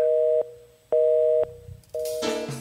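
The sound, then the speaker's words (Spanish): A telephone line tone pulses in steady, evenly spaced beeps, three on-off bursts at a constant mid pitch, before a rush of static-like noise cuts in at the end, as the call is transferred to Roger Enexa's voicemail. “Su llamada será transferida al buzón de Roger Enexa.”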